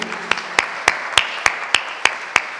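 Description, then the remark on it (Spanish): An audience applauds to welcome the speaker who will bring the word of God that afternoon: sharp, even claps on a steady beat, about three per second, ringing over a continuous hissy wash of crowd clapping, with no voices. “Y siempre que lo digo, recibámosla con un aplauso, hermanos.”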